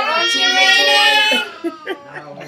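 A baby nephew wails in one long, high-pitched cry lasting over a second, then breaks into a few short, softer whimpers and sobs.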